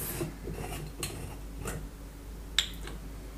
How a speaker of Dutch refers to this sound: Dus ik haal de dop van de wijnfles eraf.